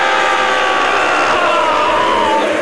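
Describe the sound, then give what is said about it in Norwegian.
Loud, sustained applause from a crowd welcoming a host from Bergen, a dense steady wash of clapping that holds throughout with a faint murmur of cheering mixed in. No one speaks. “Gi en stor applaus til Bergens største sønn og den ultimate podkastvert,”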